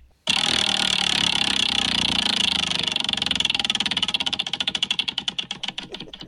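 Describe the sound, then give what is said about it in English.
A prize wheel spins with a fast, loud clatter of clicks that gradually slows until separate ticks can be heard winding down near the end, landing on Deptford. No voices are heard. “um, well, I'll spin it for you.”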